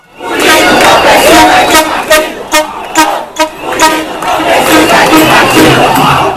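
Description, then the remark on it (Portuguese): A large protest crowd at the 2013 demonstrations chants in loud unison, shouting 'sem partido' (no party), voices surging in rhythmic shouted bursts over a constant roar of many people, the din filling the whole scene without pause. “Esses áudios são das manifestações de 2013”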